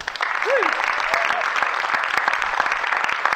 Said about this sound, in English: Right, big round of applause, please